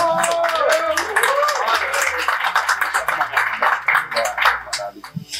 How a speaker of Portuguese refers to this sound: Uma salva de palmas